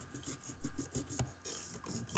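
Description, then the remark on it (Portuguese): A washing machine spin cycle churns beside the speaker while laundry is being washed, with steady, rasping mechanical noise and repeated thumping surges, at a moderate level with no voices over it. “Ei, parece que alguém está com uma máquina de lavar aí do lado, é. que tá um barulho máquina de centrífuga, mas tudo bem.”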